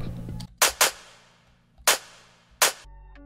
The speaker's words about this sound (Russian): Что касается ударок, то там тоже ничего интересного нету. Обычные стандартные ваншоты, клэп